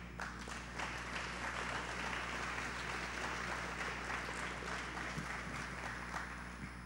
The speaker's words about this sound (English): Let's give a round of applause for those.